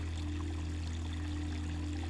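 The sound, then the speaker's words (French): Soft, continuous water of a cool river flowing gently, steady throughout with no talking, its quiet burbling texture sitting over a constant low hum. “Méditation au son de l'eau”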